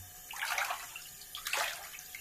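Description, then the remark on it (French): Bathwater sloshes and splashes in a bathtub big enough for two in two broad bursts, the second sharper, with a watery hiss in between and no voices. “Bah écoute l'eau.”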